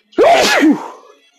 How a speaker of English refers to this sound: Bless you.